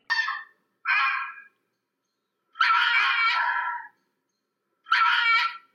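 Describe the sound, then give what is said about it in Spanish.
A fox gives four harsh, raspy calls, two short ones close together, then after a pause two longer drawn-out screams, fairly loud and clear with no other sounds around them. “Claro que sí, es el zorro.”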